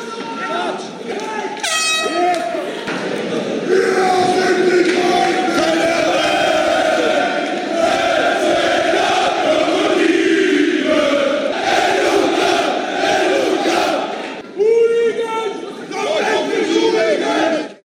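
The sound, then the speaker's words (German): A large, loud crowd roars and shouts continuously at a combat sports event, with chanting voices, bursts of cheering and a couple of sharp air horn blasts cutting through the din. “Naja, und prinzipiell muss man da natürlich sagen, dass Kampfsport schon immer, wie auch hier zu hören, ein bestimmtes Klientel angezogen hat.”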